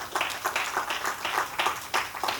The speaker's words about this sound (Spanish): Alguien le da un aplauso al Señor esta noche, esta mañana.